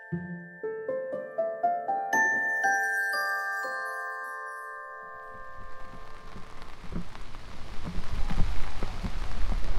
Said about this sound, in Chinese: 然后，哎，我的天呐，今天这个天气可是真不好，下着中雨，还刮着小风。然后我现在打着伞，举着麦克风，去参加一个活动，在上海中山公园观鸟活动。